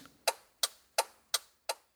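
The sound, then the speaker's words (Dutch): A car's turn signal ticks steadily, five crisp, evenly spaced clicks at a brisk rhythm, clear with no voices over them. “Maar als je kijkt naar de richtingaanwijzer van een BMW, lijkt dat toch ook best op het geluid van mijn oude Citroën.”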